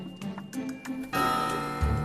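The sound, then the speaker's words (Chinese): A clock ticks steadily for about a second, then strikes eight in the evening with a loud chime that rings on with a sustained, bright metallic tone that slowly holds through the end. “到了晚上八点。钟响后，却一点动静也没有。”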